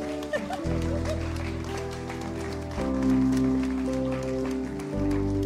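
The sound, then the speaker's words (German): Steady audience applause welcoming people onto a stage, a dense wash of clapping that carries on for several seconds over sustained, loud music whose chords change a few times. “euren Applaus.”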